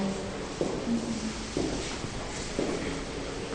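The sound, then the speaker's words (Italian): Slow, evenly spaced footsteps, about one each second, crunch softly on the ground of a dense forest against a steady, airy background hush. “in un bosco fitto, camminiamo.”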